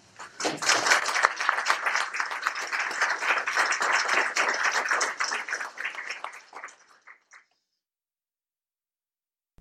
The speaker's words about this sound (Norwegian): Tusen takk, alle tre. Uh, ja, nå er det lov å klappe.